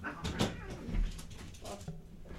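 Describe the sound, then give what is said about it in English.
Cats playfighting, heard as a few scattered thumps, bumps and scuffling knocks over a couple of seconds, fairly quiet, with no one talking. “Cats decided they want to have a a throwdown.”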